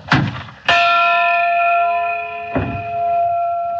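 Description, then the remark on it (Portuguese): A large church tower bell in the tower of São Denis strikes one o'clock, loud, its deep metallic tone ringing on with a long shimmering hum between strokes, with no voices. “a badalada de uma hora na torre de São Denis entraria nesta sala.”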